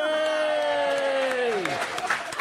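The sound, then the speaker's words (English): An audience at a panel event cheers and applauds steadily after a marriage proposal made from the audience, with a long, loud tonal cry sliding downward in pitch before dense, scattered clapping takes over. “Um, we're, we're, all cheering.”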